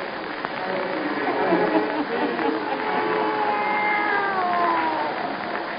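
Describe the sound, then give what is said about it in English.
A black cat meows in drawn-out, wavering cries that rise and fall in pitch, steady, over a low murmuring background. “her wise black cat.”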